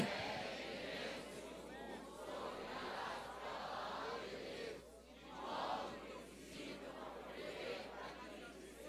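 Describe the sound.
A large crowd shouts a reading of a scripture passage together in unison, each reading loudly for their spouse to hear, a loud, dense wall of many voices continuing, swelling and dipping slightly in waves.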